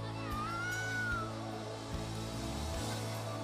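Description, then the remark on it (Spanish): A speaker addressing a church imitates a cat with one drawn-out, wavering meow, "miau", near the start, heard clearly over a steady low background hum before settling into quiet murmur. “Usted no va a ver delante del pecado con cara de gatito le aparece el pecado ahí en calzoncillo o en tango y usted le dice, miau.”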